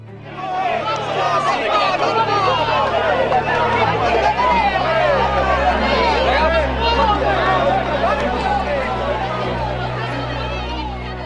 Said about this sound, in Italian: Sono le urla dei parenti che la fanno partire e lì seguono un gruppo di agenti. D'un colpo la chiesa diventa una bolgia, rimbomba di urla.